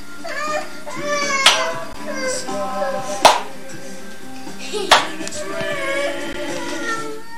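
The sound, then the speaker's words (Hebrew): Three sharp, loud hand claps ring out a couple of seconds apart, slow and deliberate like practice, while a young child's wavering, whiny vocalizing continues underneath. “מחיאות כפיים שתתרגל, אתה כל הזמן שוכח.”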